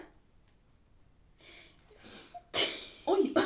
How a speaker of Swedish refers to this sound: Gud, vi måste hosta.